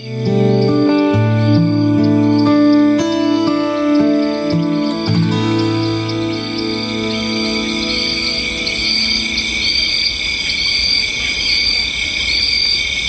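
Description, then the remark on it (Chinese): A short musical jingle with bright melodic tones, the summer-only version of a radio station's new station ID, fades into a steady bed of high insect chirping and scattered bird calls, evoking a summer night, with no speech. “有没有听到我们全新的台呼？其实中间就有放过一个啤酒版的哦。那这个是有虫鸣鸟叫，给您一种嗯夏夜的感觉。”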